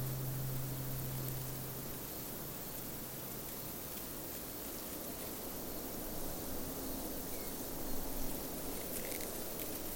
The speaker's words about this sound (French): Au son des insectes dans les herbes hautes, des cigales et des abeilles.